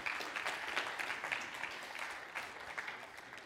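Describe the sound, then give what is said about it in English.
Audience applause fills the whole stretch, a dense, steady patter of many hands clapping at once, fairly loud and sustained without pause, with no voices rising above it. “Y'all give them a round of applause.”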